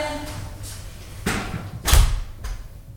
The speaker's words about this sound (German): Tür auf, Tür zu, Tür auf, Tür zu.